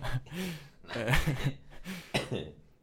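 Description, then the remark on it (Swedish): A person clears their throat and coughs several times in quick succession, a few sharp, raspy bursts mixed with rougher throaty sounds, fairly loud. “Eh, ja, nej, jag är lite hostig”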